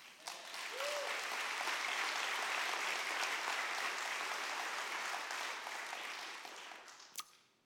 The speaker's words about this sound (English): that applause is our way of saying, Man, we are thrilled you are a part of the New Hope family.